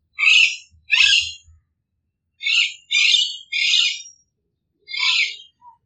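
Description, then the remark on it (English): Harsh, guttural Alexandrine parakeet calls ring out in six loud, raspy bursts, grouped in pairs and a triplet with short gaps, with no one talking. “The calls are harsher and guttural.”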